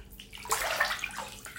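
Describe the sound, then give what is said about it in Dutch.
Water sloshes and splashes in a bathtub as a person sits in the bath, with a brief swell of moderately quiet splashing mid-clip before it settles. No one speaks. “En hoor je dit water?”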